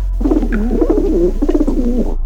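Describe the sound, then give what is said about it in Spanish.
A caged pigeon held by authorities in India coos in low, throaty, rolling warbles, two burbling phrases separated by a brief pause, over a faint steady background hum. “Y aún más importante que las dos anteriores, ¿qué querrán las autoridades de la India con una paloma como ella?”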